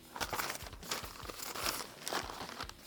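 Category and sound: household object, newspaper pages rustling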